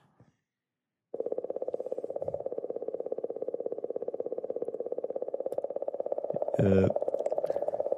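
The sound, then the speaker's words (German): A sonified recording of comet 67P: a steady, rapidly pulsing electronic hum that drones on loudly after a brief pause, with a short, brighter warble near the end. A voice murmurs briefly at the start. “der Komet 67P äh, Churi, wie heißt der Churyumov?”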